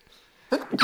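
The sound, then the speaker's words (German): A single sharp sneeze bursts out after a moment of near silence, short and forceful with a breathy, noisy edge. “Gesundheit.”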